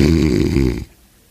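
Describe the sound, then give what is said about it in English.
A man's voice imitates a loud, rasping snore, mimicking his older brother during preaching of God's word, one drawn-out buzzing breath cutting off abruptly into quiet. “Good thing we were young guys didn't snore, see?”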